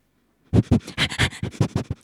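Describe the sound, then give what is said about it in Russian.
A dog sniffs eagerly, sniffing out a path in the dark, a quick run of about nine short, breathy snuffles in under two seconds, with no talking over it. “Пес Тело все забегал вперед, стукался в темноте о стволы деревьев, вынюхивал тропинку и указывал детям дорогу.”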